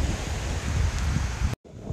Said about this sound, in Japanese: 結構ね波の音がいい感じなんでね、えー、ちょっとの間波の音を楽しんでいただきたいと思いますこんな感じです